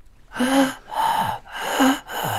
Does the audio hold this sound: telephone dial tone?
no